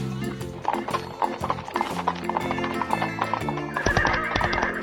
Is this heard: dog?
no